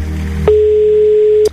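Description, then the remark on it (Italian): A telephone line tone on an unanswered call: one steady, mid-pitched beep lasting about a second, starting and stopping with faint clicks over a low background hum. No one speaks. “l'abbiamo perduto in questo caso, non prende il telefono, mannaggia.”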